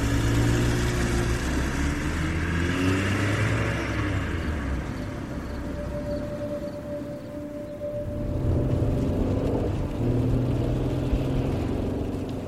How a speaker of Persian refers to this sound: ماشین رو زدم تو دنده و حرکت کردن همینطوری بی هدف راه افتادم